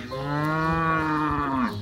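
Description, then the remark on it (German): A single long moo from a cow of Joshi Zeier's suckler cow herd of 30 animals, loud, holding a steady low pitch for nearly two seconds before trailing off, with no talking. “Die Joshi Zeier hat eine Mutterkuhherde mit 30 Tieren.”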